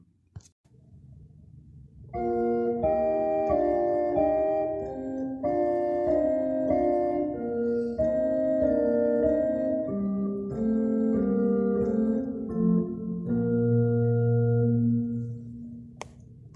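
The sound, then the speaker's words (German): A keyboard plays the left-hand part alone: a steady, flowing line of low notes, a repeating figure that steps gradually downward in pitch, one note lower each time, clear for about fourteen seconds before fading out. “Das war die linke Hand.”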